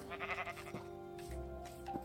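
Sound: sheep bleating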